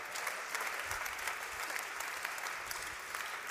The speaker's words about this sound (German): Ja gut, da kann man mal klatschen.